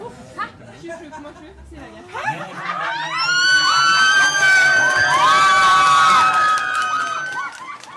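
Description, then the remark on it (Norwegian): A crowd of Høyre party supporters in Norway, celebrating Høyre becoming the country's largest party for the first time in 99 years, erupts into loud cheering and whooping, building after a few seconds of murmuring chatter and staying loud with high excited shouts before easing off slightly at the end. “Og de har nok noe å juble for.”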